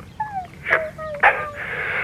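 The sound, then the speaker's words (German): A dog whimpers in high, thin whines broken by two short, sharp barks, moderately loud, with no one talking. “Aha, der Hund ist brav und der Papa kriegt dann einen Stammball als Belohnung, oder wie?”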